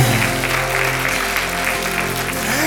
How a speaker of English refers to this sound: Praise God. Can we just give God a hand clap of praise of people who finding Jesus today?